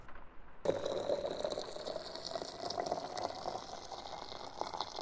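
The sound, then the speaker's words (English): A steady stream of liquid pours into a glass, a continuous splashing fill that starts abruptly and runs for several seconds, with no talking. “Well, anywho, there you go. Enjoy your drink.”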